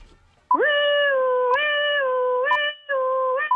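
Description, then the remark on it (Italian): A voice imitates a police car siren as a game challenge, with a loud, sustained wailing tone, briefly dipping and resuming a few times over about three seconds. “Devi fare il, eh, il suono della sirena della macchina della polizia, vai.”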